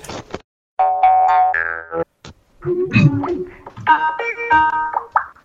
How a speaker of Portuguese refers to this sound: Cara, tô ouvindo o toque de alguém chamando. Foi a versão acústica do Skype.